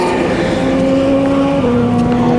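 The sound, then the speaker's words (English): Loud, droning race car engines hold a steady high whine, then the pitch drops sharply as they pass by, with no talking over them. The cars are racing at Le Mans 2016, in darkness and through mist. “he's heard and seen the cars very close up”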